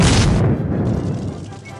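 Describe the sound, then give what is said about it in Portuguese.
A single loud gunshot cracks out, fired at the ground in a film scene by a Fratelli brother waiting in a car, followed by a rumbling, echoing decay that fades over the next second or so. “E aí age a magia de Hollywood fazendo outro irmão fratelli que tá esperando ele no carro, dá um tiro no chão”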